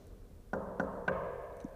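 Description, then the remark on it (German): Three quick, firm knocks on wood in an even rhythm, clear, followed by a softer, duller tap a moment later. No one speaks. “Dann klopfen wir jetzt mal dreimal auf Holz.”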